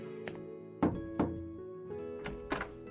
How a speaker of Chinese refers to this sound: 陶如雪走过来敲门